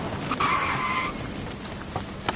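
A car's tires screech in a sharp, sustained squeal lasting under a second as it brakes hard, then fade into a dull rumbling background with a couple of faint knocks.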